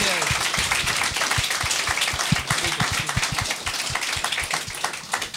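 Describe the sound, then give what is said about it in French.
An audience applauds steadily, many hands clapping in a dense, continuous patter that stays fairly loud throughout, with faint crowd voices mixed underneath. “On va Bonne bonnement l'applaudissement”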